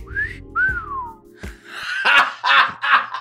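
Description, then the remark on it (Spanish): A person voices a loud wolf whistle with their mouth, two short sliding notes, the second falling in pitch, followed by a few breathy, rough bursts like laughing or coughing. “El hombre polilla dejó escapar un fuerte silbido telepático”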